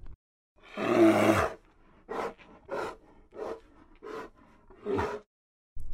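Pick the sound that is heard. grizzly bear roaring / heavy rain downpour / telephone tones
grizzly bear roaring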